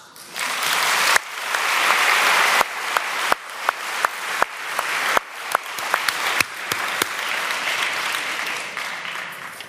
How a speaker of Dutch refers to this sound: graag uw aandacht en ook een hartelijk applaus.